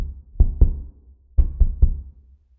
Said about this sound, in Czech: Tentokrát ho z postele vytáhly cizí hlasy a opakované tupé údery na dveře sousedova bytu.